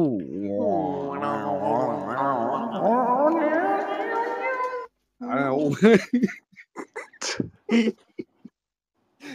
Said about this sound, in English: He's getting more and more of that cat getting lobbed over the fence.